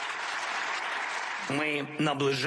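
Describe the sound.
Dense, steady applause from members of the European Parliament greeting Ukrainian President Volodymyr Zelensky on his arrival fills the first half, then a man's voice begins speaking as the clapping fades beneath him.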